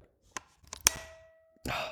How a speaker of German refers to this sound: Ich, ich muss dazu sagen, oder ich muss dazu ein anderes Geräusch noch machen, das die gleiche Kamera auch macht, wenn man das Objektiv dran macht. Das ist nämlich das schönste Geräusch, finde ich.